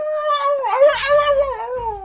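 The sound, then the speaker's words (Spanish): A single wolf howl rings out clearly for about two seconds, a sustained, wavering tone that dips slightly and holds steady, heard alone without any talking. “Ok, que le llame el lobo.”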